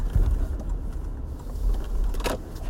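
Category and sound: ambience, car passing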